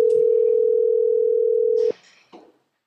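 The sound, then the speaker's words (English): A loud, steady telephone ringing tone of an outgoing phone call holds for about two seconds, then cuts off abruptly, followed by a brief rustle and a soft click. “Let's see who answers this phone call to find out who the winner is.”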